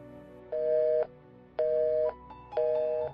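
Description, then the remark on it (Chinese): A mobile phone busy tone after the other person hangs up: three evenly spaced half-second beeps at a steady mid pitch, separated by short silences, with no voices. “听到你挂断后的嘟嘟声，我放下了手机，继续工作。”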